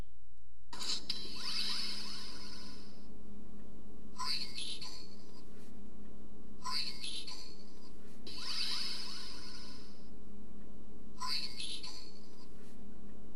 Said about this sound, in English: Is it switching for you? Do you hear both words? Some of you are like, yes. Brainstorm or green needle. You hear it based on what you saw?